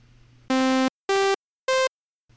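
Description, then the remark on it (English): Three loud, buzzy synthesized sawtooth tones sound one after another with short gaps, each a step higher in pitch, harsh and rich in overtones, with no voices. “You move smoothly up from 0 to 1, but then when you get to 1, you just jump right down to 0, which we call a sawtooth based off of it looking like a saw.”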